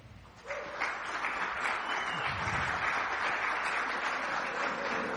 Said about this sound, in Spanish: Yo quiero que oh, se pongan de pie las mamás que están aquí de Viña Oeste. Todas las que son mamás. Y voy a pedirle a todos que les demos un aplauso.